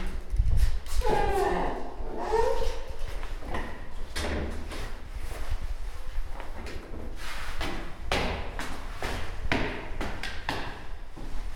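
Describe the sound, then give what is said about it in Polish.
A second door on the way to a stairwell creaks and swings open, followed by a series of sharp clunks and knocks from the latch and frame, with faint voices in the background. “I drugie drzwi.”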